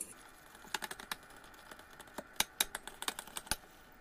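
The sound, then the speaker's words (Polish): A spoon stirs six spoonfuls of turmeric in boiling water in a pot, giving a quick, irregular run of light clinks and scrapes against the metal, fairly quiet, with no voices. “Mieszamy.”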